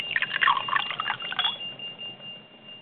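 A short, bright electronic jingle of quick chiming notes plays alone for about a second and a half, then settles into a single sustained high tone that slowly fades.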